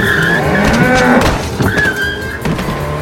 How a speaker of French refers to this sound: Mais non, regardez, tout va bien, je suis à peine à 420 km/h dans les virages.